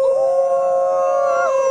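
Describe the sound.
A person imitates a wolf's howl: a single sustained howl, a steady mid-pitched tone with rich harmonics that holds level and then slides slightly at the end, loud and alone.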